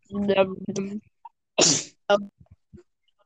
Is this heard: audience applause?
no